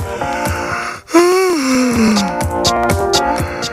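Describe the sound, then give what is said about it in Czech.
A single drawn-out yawn on the Fajn ráno radio morning show at 6:40: a sharp intake of breath, then a voiced groan that slides slowly downward in pitch for over a second, heard over steady rhythmic background music. “6 hodin a 40 minut, pojďme si všichni společně zívnout. Teď!”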